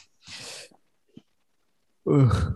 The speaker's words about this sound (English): we all just yawned there. We did.